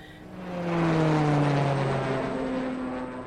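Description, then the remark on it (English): A droning airplane engine roars steadily for a few seconds, its pitch sliding gently lower as it stays loud, with no voices present. “And soon I was prepping and planning, taking the necessary vaccinations, filling out the paperwork, and boarding the plane alongside the group.”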